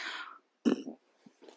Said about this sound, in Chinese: 啊，打嗝了。